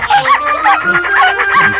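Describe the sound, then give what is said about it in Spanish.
Several dogs bark and howl together in a loud, overlapping burst of yelping barks and rising, drawn-out howls, repeating quickly over a couple of seconds with no talking. “Perros.”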